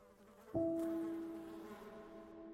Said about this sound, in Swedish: hittar Lars-Erik i ett sovrum fullt med flugor